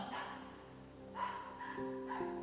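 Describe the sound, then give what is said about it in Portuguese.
Several dogs bark in quick bursts, a few sharp woofs with fainter barks behind, the barking overlapping and continuing throughout with no talking. “cachorros no ambiente.”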